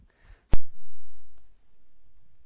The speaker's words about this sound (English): Still have enough physical Bibles that I can hear pages turning.